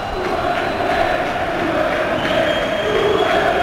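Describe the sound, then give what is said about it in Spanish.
A large stadium crowd chants "Julen, quédate" in unison, a dense, steady roar of many voices with sustained vocal tones rising and falling slightly as the chant repeats throughout. “Gritos de Julen, Julen, quédate.”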